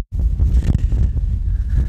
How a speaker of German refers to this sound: Sehr windig hier.